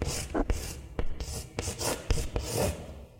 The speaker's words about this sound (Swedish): Man ritar på en griffeltavla. Ja, exakt. Ja. Så i skolan när fröken stod och ritade med en krita på griffeltavla.